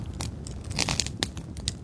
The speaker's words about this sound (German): Ah, da fängt das auch so leicht an zu knistern hier.